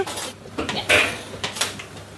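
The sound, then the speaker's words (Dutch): A spoon scrapes and clinks against a pan in a few uneven strokes, scooping and stirring spices including ground cumin and turmeric, with soft rustling between the brighter metallic scrapes. No one speaks. “En je blijft dus eh, ondertussen scheppen en roeren. Ja, want anders plakken ze in de bodem van de pan.”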